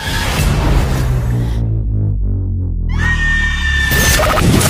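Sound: screaming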